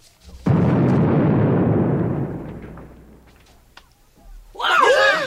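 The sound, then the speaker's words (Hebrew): A single thrown grenade explodes suddenly as a loud, broad boom, then rumbles and fades over a few seconds before a man's voice starts shouting. “רימון אחד, זרוק!”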